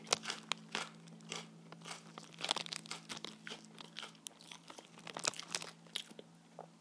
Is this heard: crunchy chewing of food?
yes